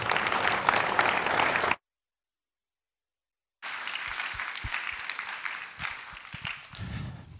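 An audience breaks into sustained applause for two young ladies, a dense wash of many hands clapping. It cuts out briefly, then resumes with slightly sparser, distinct claps before fading.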